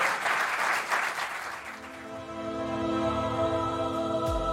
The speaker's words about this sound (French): Un tonnerre d'applaudissements pour Jérémy Perrin. Merci, merci beaucoup.